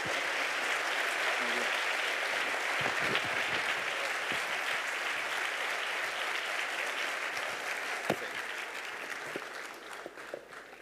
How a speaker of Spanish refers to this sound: Eh, así que te quiero agradecer, por favor, un aplauso